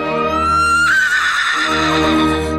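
A horse whinnies loudly, one long, shaky neigh whose pitch rises and then wavers downward over a couple of seconds. There is no talking.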